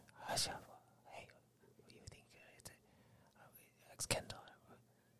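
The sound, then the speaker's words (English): Several people whisper to one another in hushed, breathy bursts, with sharp sibilant hisses standing out around the one- and four-second marks over a low, steady background hum. “As you look at them, they are all kind of talking to each other, uh, whispering to each other.”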